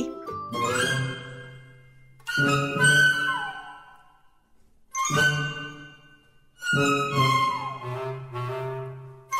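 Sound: school bell ringing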